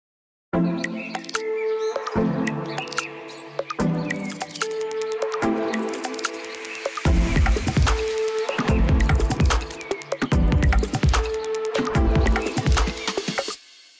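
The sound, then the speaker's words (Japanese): A short instrumental jingle of about fourteen seconds, the first of three untitled jingles composed on request: tonal melody layered with chirping birdsong and clicky mechanical sounds, with a thumping low beat joining halfway through before everything stops abruptly. “こういう感じになったんですけどもこれもすごく斬新だなと思うんですこのねあの鳥の声が聞こえたりとかそうですそうです、うん、そのその割にはこうねこうなんですかね機械的な音楽機械的な音も入っててっていう、うんうん、それがすごいいいなと思ったんですが”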